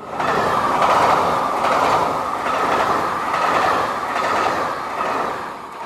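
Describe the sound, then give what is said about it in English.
A train travelling to the French Alps rumbles steadily along the tracks with a rhythmic clickety-clack of wheels over rail joints, loud, with no voices. “This week, as the European ski season approaches, we're letting the train take the strain to the French Alps.”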